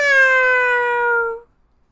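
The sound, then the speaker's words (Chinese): A single long, drawn-out meow from a patterned male cat, fairly high and tonal, sliding slowly downward in pitch for over a second before cutting off into silence. No talking accompanies it. “花猫呢，是一只淘气的公猫。喵！”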